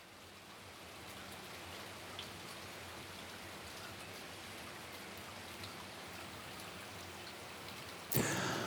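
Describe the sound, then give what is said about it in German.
Steady rain patters on the glass roof of a balcony overlooking an inner-city courtyard in the Südstadt, a dense continuous hiss of drops with occasional sharper taps, with a brief louder splash near the end. “Regen.”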